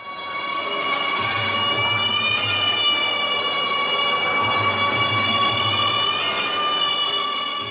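Original live sound from a Muay Thai fight, with a continuous wailing, reedy high tone that holds and bends steadily over rhythmic low thumping beats that come in short bursts. No one speaks.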